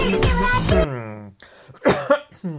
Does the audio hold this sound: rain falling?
no